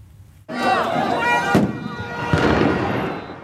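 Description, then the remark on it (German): Sharp explosive bangs of stun grenades burst out amid the dense, noisy roar of a crowd of protesters gathered at an intersection in Tel Aviv, Israel, to block the access roads to the motorway, with two distinct cracks standing out over continuous shouting and commotion. “Blendgranaten explodieren in einer Gruppe von Demonstranten, die sich auf einer Kreuzung in Tel Aviv versammelt haben, um die Zufahrtsstraßen zur Autobahn zu blockieren.”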